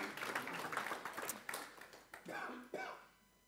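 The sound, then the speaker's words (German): A crowd claps steadily for a few seconds in applause for a person, the dense patter of applause fading slightly as a voice speaks briefly over the end. “Dann Applaus”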